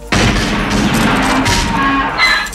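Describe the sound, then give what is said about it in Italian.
A sudden, loud burst of gunshots breaks out and continues as a dense, rapid volley for a couple of seconds, harsh, with no voices. “Fatevi riconoscere lo sparo!”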